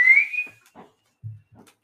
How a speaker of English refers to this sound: That's definitely fireworks.